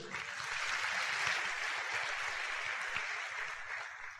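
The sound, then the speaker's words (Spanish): An audience applauds its leaders steadily for about four seconds, a dense wash of clapping hands that holds at an even level from start to finish, with no voices rising above it. “Por favor, démosle un fuerte aplauso.”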